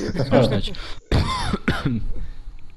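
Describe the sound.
A person nearby coughs twice in short, harsh bursts after a brief stretch of voice, with a quiet, murmuring tail afterward.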